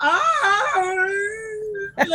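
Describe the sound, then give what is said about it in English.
A voice sings a siren's alluring song, sung in a game to summon the other players closer: one long, loud vowel that slides down from a higher pitch, then holds a steady, slightly wavering note for nearly two seconds before a short breathy break. “your alluring song is sung to summon the other players closer, you have to sing the siren's song and it's something like.”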